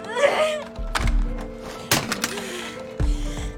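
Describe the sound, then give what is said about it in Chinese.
An alarm clock is thrown and lands with heavy, dull thuds, three knocks spaced about a second apart, each one sharp and brief, over a faint steady hum. “一把将闹钟扔了出去。”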